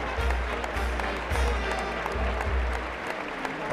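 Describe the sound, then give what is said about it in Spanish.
A large bullring crowd gives a Peruvian bullfighter an ovation as he comes out to receive it, dense clapping blending into a continuous roar with a low rumble underneath, sustained at full strength throughout. “Bueno, pues hay una ovación, ¿eh?”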